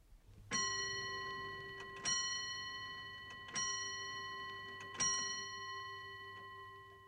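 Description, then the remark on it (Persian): A clock chimes four times, marking four o'clock, each resonant bell stroke ringing out and slowly decaying before the next, evenly spaced at a measured pace with no voices present. “اول به تعداد زنگهای ساعت گوش کنید و بعد بگین که چه ساعتیه.”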